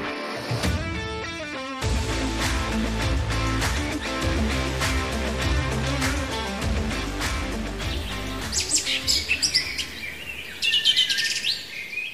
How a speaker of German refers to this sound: Sie hören es, Vogelgezwitscher, die Blätter rauschen im Wind, in der Ferne plätschert vielleicht noch ein kleiner Bach. In dieser Folge gehen wir zusammen mit Ihnen in den Wald.